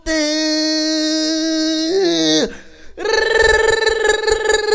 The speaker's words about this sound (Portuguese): Peidei, velho, peidei.